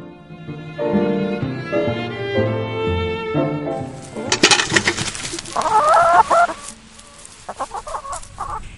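A soft tonal musical passage gives way to a flock of chickens clucking nearby in quick, busy bursts, with scattered squawks over the last few seconds.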